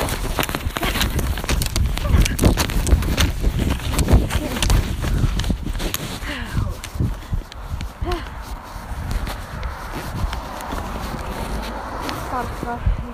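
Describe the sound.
Horse hooves clip-clop in a steady walking rhythm throughout as a horse is ridden out, with outdoor rustle and occasional voices in the background.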